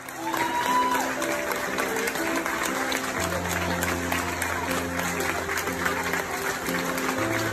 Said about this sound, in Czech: Třeba takhle zněl potlesk Australanů na letišti, když dorazili hasiči ze Spojených států, které lidé v Melbourne označili za heroes, tedy za hrdiny.